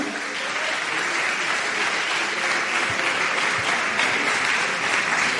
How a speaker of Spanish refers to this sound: Un aplauso